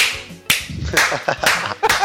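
A few loud, sharp hand claps land at an uneven pace, roughly four or five crisp smacks over two seconds, with a faint low murmur underneath.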